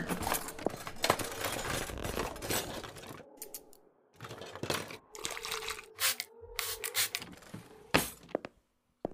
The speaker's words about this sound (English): Looks like you've got a few knots to brush out. Ow. Oh, sorry, sorry. Uh, my bad. That was the worst bit.